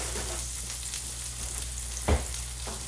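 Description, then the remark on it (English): Frozen southern style potatoes sizzle on the back of a griddle in a steady, crackling hiss, broken once by a brief louder knock partway through. No one speaks. “So I'm adding those a small amount to the back of my griddle.”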